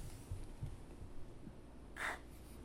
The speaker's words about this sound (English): I'm sorry if uh, you keep hearing like some like breathing. That's me trying to uh, control my breathing outside the math, outside the mic.